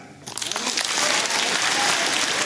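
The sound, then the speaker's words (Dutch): An audience bursts into applause at a CDA party event in the Netherlands where a plan is being presented. It is a dense, steady wash of many hands clapping that starts abruptly and holds loud throughout, with no voices heard. “Applaus.”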